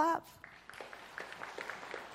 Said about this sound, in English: want you to clap if you would classify yourself as a rule breaker. Will you clap? If you're a rule follower, will you clap?